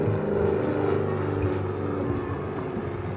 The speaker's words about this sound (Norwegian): En gang så fløy jeg i et lite småfly over en vulkan som heter White Island på New Zealand, og jeg fikk styre flyet helt selv.